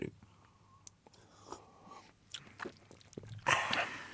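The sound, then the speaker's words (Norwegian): Quiet mouth noises of people sipping Lafroig Cortecask whisky after a toast in a Radio Volt studio: small slurps, lip smacks and swallows scattered over a few seconds, ending with a louder breathy exhale, with no talking. “Eh, spesielt hvis du, hvis du er på jobb eller et sånt annet sted og hører at vi sitter og drikker whisky.”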